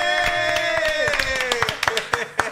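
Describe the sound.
Several people clap their hands in scattered, uneven sharp bursts that grow punchier toward the end, while a sustained voice holds a tone that slowly slides lower underneath, as a group claps again at the opening of the show Desde la Sala.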